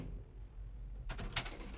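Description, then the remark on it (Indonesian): Partway through, an elevator door slides open at the ground floor: a short run of soft, breathy whooshing and rattling bursts rising over a steady low hum, fairly quiet. “Ia hanya menatap Rafa sampai pintu lift terbuka di lantai dasar.”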